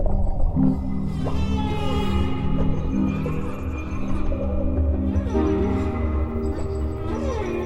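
Whale calls moan and sweep through the water, layered tonal cries rising and falling over a steady low underwater rumble, continuous with no voices.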